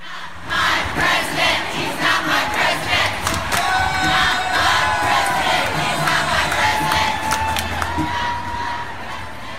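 A large crowd at a protest march in Chicago shouts and chants together in a dense, continuous roar, with cheers and whistles rising over the steady wash of many voices.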